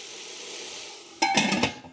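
Water hisses into steam in a hot pan as a little water is added to speed up cooking, a steady sizzle that suddenly grows louder and crackly halfway through, with a few sharp pulses before fading slightly. No one speaks.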